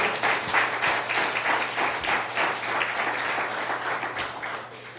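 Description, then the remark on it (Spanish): Sustained, loud applause from a crowd given for the Lord Jesus Christ, a dense wash of many hands clapping at once that holds steady for several seconds without any talking over it. “Dale un fuerte aplauso a nuestro Señor.”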